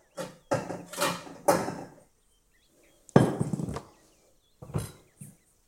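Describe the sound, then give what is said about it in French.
A kitchen scale being taken out and set down to weigh baking ingredients for a dessert: a run of hollow clunks and rattles in several short bursts, with brief pauses between, and no talking. “J'ai besoin de beurre, de sucre, de miel, de jus de pomme et de farine je sors ma balance.”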